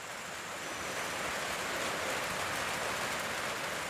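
A dense, steady roar of heavy tropical rain pours down at night at a shabono without pause, a thick wall of hissing noise constant throughout, with no voices.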